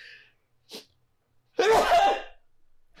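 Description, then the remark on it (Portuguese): A single loud sneeze bursts out after a couple of quick inhaling breaths, with a short fading exhale afterward. No speech is heard. “aí, vou espirrar.”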